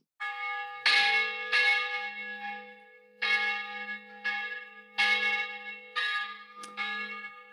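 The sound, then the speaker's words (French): Church bells in Florence, Italy, peal steadily, several clear strikes arriving at uneven intervals, each leaving a long shimmering hum that overlaps the next. Loud and resonant, with no voices. “ce sont les cloches.”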